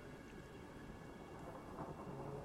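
A thunderstorm with steady rain and a low, continuous rumble of rolling thunder that swells slightly toward the end, as lightning flashes again and again across the sky, with no voices.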